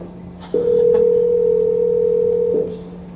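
A steady, loud telephone dial tone while placing a call holds for about two seconds, then stops, with a faint low hum underneath and brief clicks at the start and end; no one speaks.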